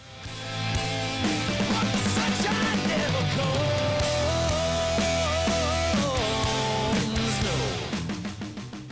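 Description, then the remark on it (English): A loud, dense metal rock song played from its original CD release, with heavy distorted guitars and pounding drums, squashed by its mastering into a flat, heavily compressed wall of sound where the sung vocals are buried among the other instruments. “the vocals are kind of hard to hear they feel like they're buried uh, amidst all the other instruments”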